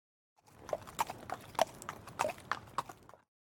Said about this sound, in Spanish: Cuando aparece, el sombrerón camina con una mula o con un caballo.